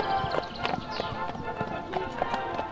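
Horse hooves clip-clop in a steady, brisk rhythm, each hollow strike fairly loud against a busy background hum.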